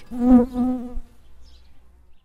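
A loud insect buzz drones steadily for about a second, like a bee or fly passing, then drops away into a faint low hum before fading out.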